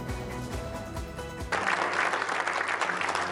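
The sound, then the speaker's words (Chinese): A crowd of guests at the royal wedding of Jordan's Crown Prince Hussein breaks into loud, steady applause as the bride enters. The dense clapping starts suddenly after a softer stretch of background music and continues without pause to the end. “众人掌声下，新娘缓缓进场，新郎笑得合不拢嘴。”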